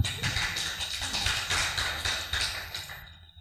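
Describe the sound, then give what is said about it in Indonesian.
A group claps together for everyone for about three seconds, a dense crackle of many hands at a steady moderate volume that tapers off at the end. No voices are heard. “Ya, tepuk tangan buat semua.”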